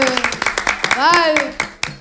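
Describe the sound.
An audience claps for a student being called up, in a brisk, uneven patter of sharp hand claps, while a voice calls out briefly over them in the middle.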